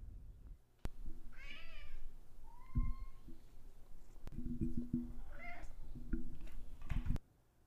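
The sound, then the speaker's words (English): A cat meows a couple of times, with short drawn-out cries spaced a few seconds apart, over low rumbling background noise and a few soft thumps. “If cats experience a food shortage, as humans have, are you going to lead the efforts to fight back against cat hunger? Or do you feel guilty eating so much food?”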